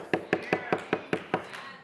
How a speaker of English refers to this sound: And do you realize when Jesus descends down to hell, he's no longer the weak, lowly Jesus. Now he's the mighty conqueror. Oh, hallelujah! And Brother Branham says he knocks on the door.